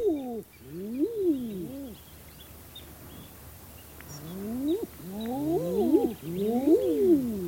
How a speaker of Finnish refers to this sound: Se on niin, se on niin upea ääni silloin, kun haahkoja on laajemmaltikin isommalti meren selällä näin keväiseen aikaan. Ja vaikka välttämättä ei edes näkisi niitä haahkoja, kun tämä ääni kuuluu, niin se säväyttää jopa sisämaan miestä välillä.